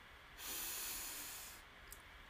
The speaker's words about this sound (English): So let's begin by breathing in and saying Om as long as our breath allows. So deep breath in.